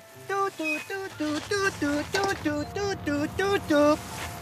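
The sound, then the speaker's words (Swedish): A voice imitates an approaching tractor engine with a steady run of about a dozen rhythmic, chugging pulses over a low rumble, growing slightly louder toward the end. “Är det Helge Karlssons traktor?”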